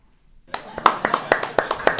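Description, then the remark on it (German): Short burst of applause starting after a brief silence: a small group clapping with sharp, uneven claps at a brisk pace, fairly loud, and no talking. “Äh, Krieg ich Gute. noch einen Applaus?”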